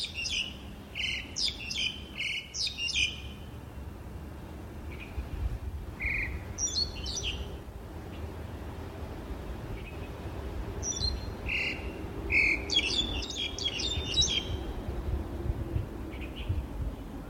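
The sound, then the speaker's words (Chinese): A songbird in a park in Tamsui (Danshui) sings in bursts of quick, high, chirping phrases, with a pause between the bursts. A low, steady outdoor rumble runs underneath, and no one speaks. “这只的鸟的名字啊，叫做乌岭两鸟。”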